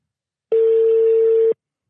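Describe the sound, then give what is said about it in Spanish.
A phone line rings out on a call to a radio show listener: one steady, mid-pitched electronic tone lasting about a second, loud and clean, with silence on either side and no voices. “este es el tercer episodio que haríamos la llamada a un amigo.”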